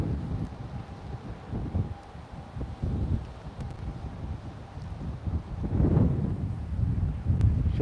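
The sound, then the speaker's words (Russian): Wind buffets a microphone in steady low rumbling gusts, swelling louder toward the end, with no voices over it. “Такой опять ветер.”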